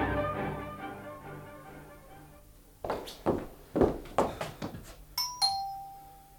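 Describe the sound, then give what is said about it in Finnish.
A doorbell rings with two quick bright chimes near the end, following a few heavy footsteps or thumps, after a soft, sustained tonal hum in the opening seconds. “Paitakaa vielä nappia.”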